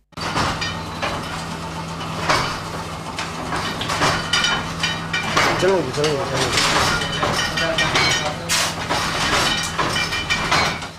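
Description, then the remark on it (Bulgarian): A letterpress printing machine runs, printing typeset pages, its steady rhythmic clacking and thumping layered over a low mechanical hum, with a brief squeaky whine partway through. “Тя се свързва с още една или още три готови страници, за да се чуе вече тази песен”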